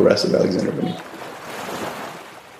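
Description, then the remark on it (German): Gentle sea waves wash onto a white beach in Chalkidiki, northern Greece, on a summer beach day, in a steady, hissing surf. Voices are briefly heard at the start before the waves continue alone at a moderate level. “Weißer Strand, blaues Meer, das perfekte Urlaubsparadies.”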